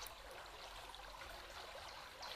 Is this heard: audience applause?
no